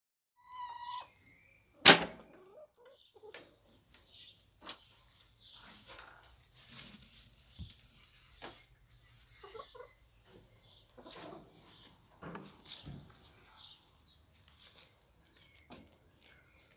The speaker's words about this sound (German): wenn man in den Stall reingeht und nach den Eiern schaut, das hörst du jetzt. Man hört nicht unbedingt etwas Besonderes, aber vielleicht hörst du das Rascheln vom Stroh oder das Klackern vom Riegel, also wie der Türgriff sozusagen. Hör mal genau hin.